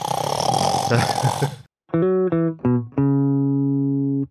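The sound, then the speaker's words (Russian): A voice mimics loud snoring: a rough, noisy rumble, then a few short choppy vocal snorts and one long drawn-out buzzing snore, loud. “в 3 часа ночи ты просыпаешься в холодном поту от того, что твой дедушка неистово храпит, просто так неистово”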